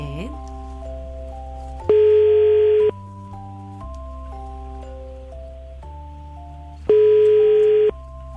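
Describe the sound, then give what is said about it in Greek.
A radio call-in show's phone line rings out unanswered, two loud one-second ring tones about five seconds apart, with steady background music playing underneath and no one picking up. “Σπανίζουν οι Μαρίε που το σηκώνουν το τηλέφωνο στη γραμμή.”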